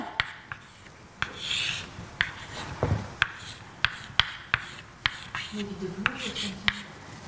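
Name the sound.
writing on a board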